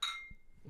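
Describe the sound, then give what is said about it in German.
A single bright clink of beer glasses in a toast rings out at the start and decays quickly, followed by faint low rustling; fairly quiet. “Cheers. Cheers.”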